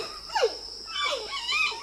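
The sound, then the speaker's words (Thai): A giant panda gives a few short, high-pitched bleating squeals with falling and wavering pitch, fairly soft, with no talking over them. “นั่นก็คือหมีแพนด้าค่ะแหมไม่เพียงแต่ตัวกลมๆ รูปร่างหน้าตาน่ารักเท่านั้นนะคะ เสียงร้องของหมีแพนด้าก็อย่างน่ารักด้วยล่ะค่ะ การร้องของเจ้าหมีแพนด้าก็มีตั้งแต่ลูกหมีที่ร้องหาแม่แม่หมีที่ร้องหาลูก”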